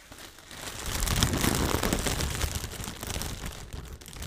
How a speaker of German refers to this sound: Weißt du, was ich jetzt gerade mache? Du schlägst deine Finger gegen dein Mikrofon? Nee, ich schlag gegen eine Wasserflasche.